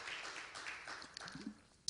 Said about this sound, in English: Give the Lord a hand clap of praise. Hallelujah. praise the Lord.